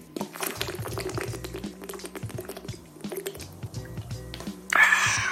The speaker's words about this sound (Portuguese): Tá, deixa eu só tomar um pouco d'água aqui, pessoal, que eu ando com a garganta meio ruim. Só um minutinho.